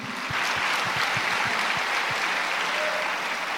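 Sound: audience applause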